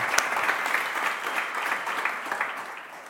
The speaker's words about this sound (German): Würdet ihr mir helfen, hier in Tübingen, sie einfach einen Applaus zu geben? So gut.